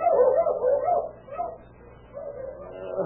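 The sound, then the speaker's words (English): A sheep rancher's dogs bark savagely outside a little trailer house in a few rough, drawn-out bursts, moderately loud, with no voices alongside. “Suddenly, the savage barking of his dogs outside the little trailer house awakened him out of slumber.”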